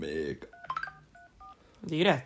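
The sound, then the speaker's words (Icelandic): A quick run of about four telephone keypad dialing tones, short steady beeps in an uneven rhythm, with a voice speaking before them and another starting again right after. “Já, þá maður byrjar að ringja”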